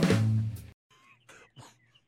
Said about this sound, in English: You hear him? I hear a My- bird. I hear a bird.